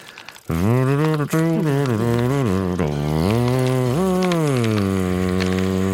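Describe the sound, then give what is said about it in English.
A loud voice hums an old, wandering country-style tune with a raspy, buzzing tone, starting after a brief pause and carrying on steadily without words. “Hmm and then I start humming an old country tune, but it sounds kind of like buzzing.”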